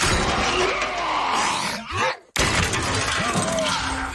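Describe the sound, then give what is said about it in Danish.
A voice imitates a loud, harsh buzzing vibrator, a sustained rough drone with a brief cut-off partway through before it resumes. “Altså hvis man, øh, hvis man inden man skal i gang med noget som helst, øh, øh, øh har en, en vibrator, der lyder sådan her”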